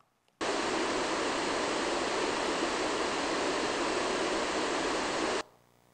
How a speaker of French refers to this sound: Le ruisseau naturel.